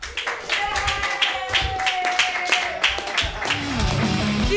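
An audience claps and cheers loudly and continuously for women's rights, a dense wash of hand claps with whoops and shouted voices layered over the top.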